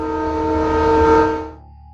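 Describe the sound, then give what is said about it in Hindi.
A loud, sustained train horn echoing through a forest near a railway crossing blares with a steady chord of tones, swelling slightly before cutting off and leaving a fainter lingering tone that fades like an echo. “train का horn पूरे जंगल में गूंजा”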